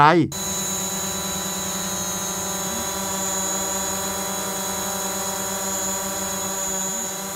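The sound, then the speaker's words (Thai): A drone's propellers, at least four spinning at high speed, whine in a steady buzz, with layered motor hum holding constant and a slight pitch wobble as it hovers. No voices. “และนี่ก็คือเสียงของโดรนครับน้องๆ เคยได้ยินหรือว่าเคยเห็นเจ้าโดรนนี้หรือเปล่าครับ ลักษณะของเขาก็จะเป็นเหมือนกับอุปกรณ์ชิ้นหนึ่งที่มีใบพัดอยู่อย่างน้อยก็4ใบนะครับ ที่หมุนด้วยความเร็ว แล้วก็ทำให้เจ้าสิ่งนี้ลอยขึ้นไปบนอากาศ”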